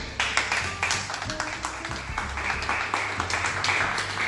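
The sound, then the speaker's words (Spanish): A crowd applauds, a dense, steady wash of many hands clapping at once, fairly loud and sustained for several seconds with no voices standing out. “Un aplauso, un aplauso por favor.”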